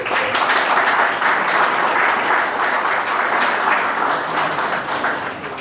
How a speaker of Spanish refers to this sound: Un fuerte aplauso.